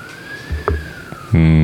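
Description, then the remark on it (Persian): An ambulance siren's steady wail passes by in the background, a single sustained tone sliding slightly, before a voice begins speaking at the end. “آمبولانس هم داره رد میشه خیلی هم باحال”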